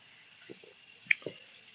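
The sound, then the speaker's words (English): A few soft, wet little sounds of someone sipping water, with one brief bright drip-like click in the middle, fairly quiet with no talking. “Grab some water.”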